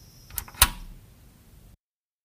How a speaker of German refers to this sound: ein Lichtschalter. Ja, logisch. Klick, klack.